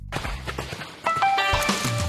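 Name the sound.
horse hooves galloping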